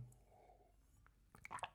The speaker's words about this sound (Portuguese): Vou dar aqui um gol d'água.